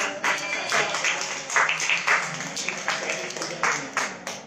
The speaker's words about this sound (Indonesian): Ayo kasih tepuk tangan dong